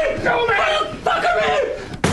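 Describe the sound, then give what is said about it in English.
A person yells loudly and strains for a couple of seconds, then a sudden sharp crash bursts out as a person's head and body are smashed through a pre-scored door during a filmed stunt. “Well, this door opened up.”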